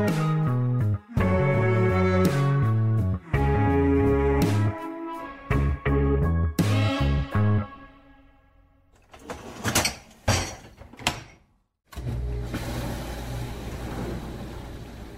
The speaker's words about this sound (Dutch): Eh, dit was een vaatwasser.